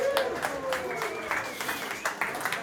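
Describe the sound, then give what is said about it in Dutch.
A group of people claps and applauds steadily for the volunteers at an evening event, a dense patter of overlapping hand claps with voices audible above it. “We gaan wat klappen voor de vrijwilligers.”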